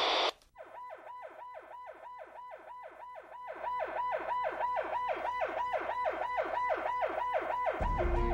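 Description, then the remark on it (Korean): An ambulance siren yelps in rapid, evenly repeating rising-and-falling sweeps, loud and steady, growing louder partway through as if approaching, with a low rumble at the very end. “구급차 지원 바란다.”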